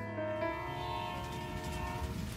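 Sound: train running on rails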